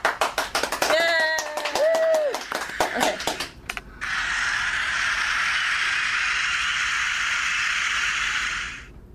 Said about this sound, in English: you may, after we give you a big round of applause.